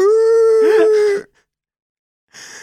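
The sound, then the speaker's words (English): A person's voice lets out a loud, sustained, eerie shriek, imitating an inhuman horror-movie scream. It holds steady for about a second, wavers, then cuts off, followed by brief silence and a short noisy burst. “just where you hear the the scream noise. Right, or like the the body snatchers where the guy's just like”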